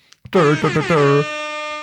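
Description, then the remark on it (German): A voice makes a short, warbling honk in imitation of a toy horn, like a soundboard sound effect, ending in a steady buzzy toot that fades out. It is loud, with nothing else behind it. “So wie bei Discord, so Tröte.”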